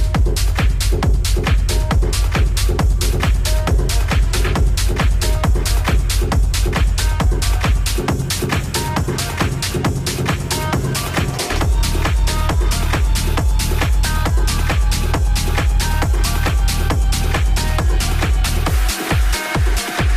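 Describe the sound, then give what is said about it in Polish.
Loud, driving techno with a steady four-on-the-floor kick, pulsing bass and layered synths; the bass line drops out midway, then returns before a stuttering break near the end. No voices. “Wchodzimy w strefę techno.”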